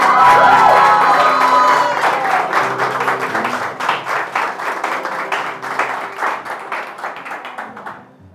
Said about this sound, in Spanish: Ay, no, un fuerte aplauso a Dios.